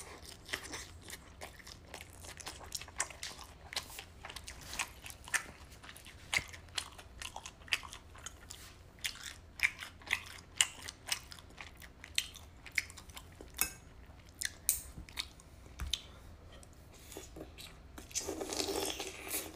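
Crunchy chewing of pan-fried dumplings, with sharp irregular bites and crackles repeating steadily over a low background, ending in a louder burst of rustling noise. No talking.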